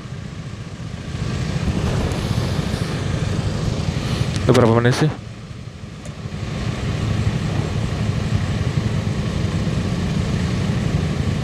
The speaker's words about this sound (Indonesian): Ini lampu merahnya sancing anjing nih, macet dah. Lama ya.